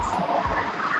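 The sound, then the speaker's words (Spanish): A car passes on the street, a steady, fairly loud rush of engine and tire noise lasting about a second, with no voices over it. “pasó, sonó como un, auto, weón.”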